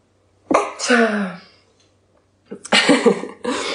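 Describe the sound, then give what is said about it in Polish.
Two loud sneezes a couple of seconds apart: the first a voiced, breathy burst, the second a sharper, noisier explosion trailing into a hiss. “uwaga, będę kichać, przepraszam”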